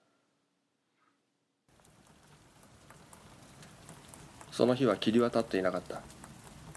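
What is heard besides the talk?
rain falling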